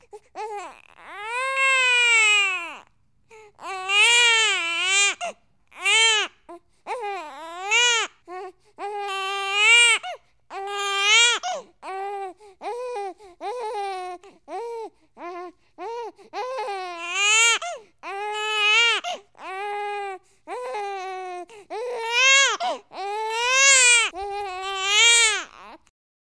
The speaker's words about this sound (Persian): بعد خودش پای بچه را گرفت، وارونه اش کرد و به پشتش زد. بعد بینی و حلقش را تمیز کرد. با این کار صدای گریه بچه بلند شد.